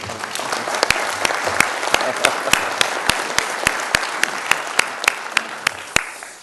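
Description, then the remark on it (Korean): An audience applauds steadily for several seconds, a dense wash of clapping with sharper individual claps popping out at a fairly regular rhythm before it tapers off at the end. “지금 저 우리 부산의 북구청장님이나 그 서울의 노원 구청장님이 이 소식을 들으면 제일 반가하겠습니다 그런 의미에서 우리 박수 한번 칩시다.”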